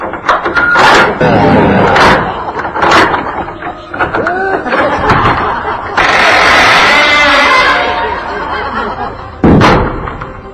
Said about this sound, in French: Et il ferme la porte.